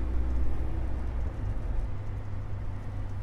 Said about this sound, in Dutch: En ik rij op een vuilniswagen in de stad Rotterdam. En eh, op dit moment rijden we ook in een vuilniswagen door de stad Rotterdam. En op dit moment rijden we op de kop van Zuid in de vuilniswagen.